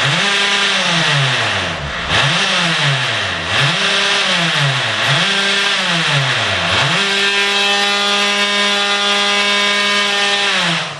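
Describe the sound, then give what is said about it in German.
A hammer drill whines loudly as it drills holes into a pudding, its motor pitch sagging four times as it bites into the material, then spinning up to a steady high drone. No voices. “Willst du den Pudding etwa mit der Schlagbohrmaschine?”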